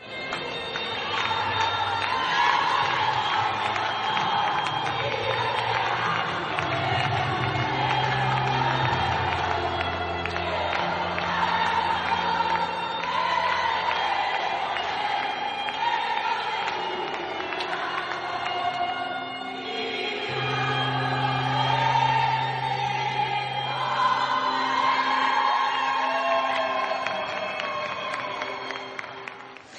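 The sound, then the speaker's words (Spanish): A large crowd in Granada sings the Asturian anthem loudly and steadily together, celebrating a football team's promotion, voices merging into a dense, sustained chorus that keeps going for the whole stretch, with swelling phrases and a faint cheering edge. “para cantar a voz en grito en Granada el himno de Asturias celebrando el ascenso.”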